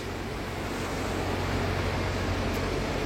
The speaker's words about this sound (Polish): Tak jak na stokach jest ratrak, tak tutaj e, traktory uklepują plażę.